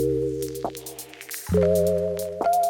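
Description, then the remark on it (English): A snare drum filtered down to a muffled sound hits three times at a slow, spaced pace beneath sustained, warm synth chords, with faint vinyl crackle and ticking in the background. “And the snare drum is filtered down to this kind of sound.”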